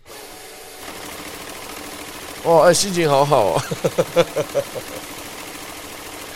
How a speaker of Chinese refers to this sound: 那另外一个数钞机的声音给大家听听看。